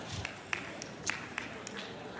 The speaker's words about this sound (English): Are you clapping for the Cartoon Network or.